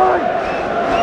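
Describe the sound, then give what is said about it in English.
A dense, roaring crowd of Leicester City supporters at the King Power Stadium sings and chants together in sustained unison as Leicester beat Manchester United, loud and continuous with no pauses, the mass of voices blending into a steady wall of sound. “And the noise you can hear, sadly, isn't from the Manchester United support, it's from the Leicester support”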